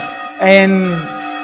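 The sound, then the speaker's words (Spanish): A bell strikes loudly partway through, its rich ringing tone swelling and then slowly fading, with a faint hum of earlier ringing lingering before and after. “Voy a dejar que las campanas terminen porque la mascarilla me produce sordera.”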